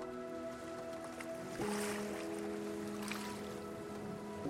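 Ocean water washes and surges around a boat moving with the rhythm of the waves in the middle of the sea, with a steady low engine hum beneath the swells and no voices.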